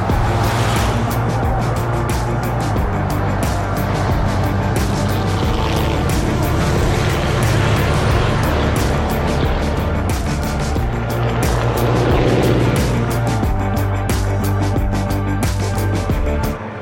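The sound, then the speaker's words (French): Heavy race truck engines roar steadily and loudly on the Bugatti circuit at Le Mans during the 2023 24 Heures Camions. One truck sweeps past, its pitch rising and falling, amid constant track noise. “l'édition 2023 des 24 heures camions, Volvo Trucks délocalise son podcast Un truc à vous dire au Mans, direction le mythique circuit Bugatti, rencontrer des passionnés et revivez l'ambiance incroyable de cet événement incontournable.”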